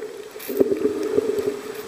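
Water sloshing and splashing, with repeated irregular splashes as people in masks, snorkels and fins walk backwards into warm, knee-deep sea water and splash in to swim about 500 feet to a reef, continuous with no voices.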